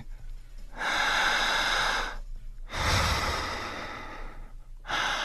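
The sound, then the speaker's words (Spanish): Deep, forceful breaths through the mouth, demonstrating the breathing to be learned for hypnosis: two long, loud airy inhales and exhales with short pauses between, a third breath starting at the end. No talking. “Por la boca, profundo. Súper, súper profundo, más fuerte que eso.”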